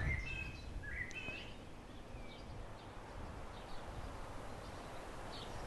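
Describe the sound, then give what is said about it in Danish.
Blackbirds and pheasants call in short bursts by a roadside over steady wind and passing cars, with a few clear whistles early on and fainter calls later, all beneath a constant wash of wind and road hum. “Jeg sidder i vejkanten. Solsorte og fasaner og biler.”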